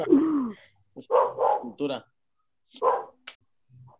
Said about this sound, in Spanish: Ay, el perro no se calla. Es que no es, Guatemala si no se escuchan los perros al fondo.